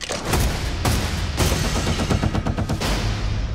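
Loud gunshots ring out: three sharp single blasts spaced about half a second apart, then a rapid flurry of overlapping shots and ricochet-like cracks, all over a steady rumbling background with no talking.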